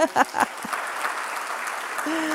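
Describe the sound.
An audience claps in a steady, dense patter of many hands, a sustained wash of applause with a few brief voices and a tonal sound near the start and end.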